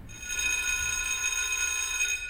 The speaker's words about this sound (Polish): I dzwonek szkolny działający? I dzwonek też szkolny z wysokiego, bardzo zużyty ten dzwonek jest, ale jest